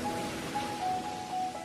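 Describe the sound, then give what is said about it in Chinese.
A steady, hissing wash of sea waves rolls on without clear breaks, with a faint thin tone held faintly above it; no one speaks. “听，那是大海的声音。”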